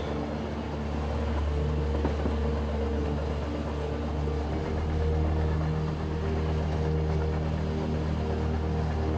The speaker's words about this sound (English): And the sounds and vibrations of the train provide a hypnotic pleasure it means that you're moving on and journeying towards a place of calm and peace.